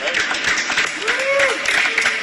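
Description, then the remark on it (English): A small crowd claps steadily and continuously at moderate loudness at a finish line on the Champs-Élysées in Paris, greeting pro cyclist Lachlan Morton after he completed all 21 Tour de France stages, with a few voices calling out over the applause. “That's not the normal thunder of applause at the finish line, and the tour isn't over.”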